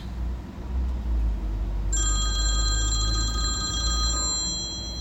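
A telephone rings outdoors with the awaited call for the participatory performance Věc Makropulos, a bright, steady electronic trill starting about two seconds in and lasting a couple of seconds, over a constant low rumble of traffic or engine noise.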